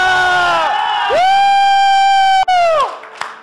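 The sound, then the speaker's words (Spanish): A crowd, on a count of three, lets out a loud, sustained shout of jubilation, rising together in one long cheer that holds for a couple of seconds before fading into a few scattered whoops. “Vamos a dar un grito de júbilo.”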